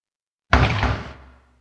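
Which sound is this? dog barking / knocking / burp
knocking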